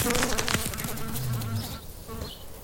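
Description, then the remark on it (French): A fly buzzes past a motionless praying mantis on a blade of grass with a steady, droning hum that wavers in pitch, then thins out and briefly fades toward the end, with no voices present. “La mouche est transpercée des deux côtés.”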